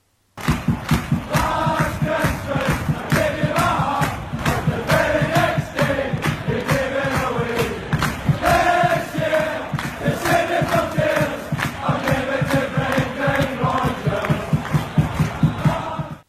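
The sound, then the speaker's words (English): A large crowd of Celtic football fans sings a Christmas-themed chant in unison, loud and steady throughout, with rhythmic melodic phrases repeating over a dense wall of voices. “This is my favourite Christmas themed football chant of the moment.”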